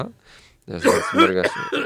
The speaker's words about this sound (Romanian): Uh, și uh, asta am înțeles că trebuie să tușesc în în pliu mâini, zic bine? În pliu da, da, da. cotului aici.